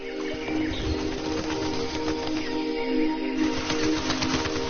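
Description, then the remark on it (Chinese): A colony of egrets in a dense grove hidden in the city of Shunde, China, under five kilometres from the city centre and reachable only by water, calling nonstop, with many overlapping harsh, chattering cries forming a dense, steady din. It is fairly loud throughout, and no one speaks. “鹿鸟是这里的主人。”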